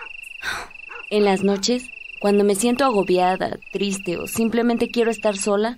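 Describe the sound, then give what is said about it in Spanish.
A steady, high-pitched trill of crickets runs through the whole stretch, continuous and fairly prominent, while a woman speaks softly over it in a calm night setting, out on a patio under the stars. “me gusta salir al patio a mirar las estrellas y escuchar el canto de los grillos.”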